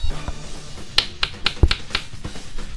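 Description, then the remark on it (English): An English one-penny coin taps against a wooden surface about half a dozen times, each one a sharp click in a quick, slightly uneven rhythm, with no talking. “That's a coin against wood.”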